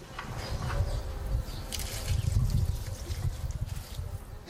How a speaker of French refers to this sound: Alors là, j'arrose des céleris euh, raves, des fenouilles, et puis des choux de Bruxelles.